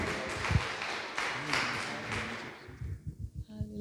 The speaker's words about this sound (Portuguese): Você pode dar um aplauso ao Senhor Jesus, glória a Deus, aleluia, o Senhor é bom.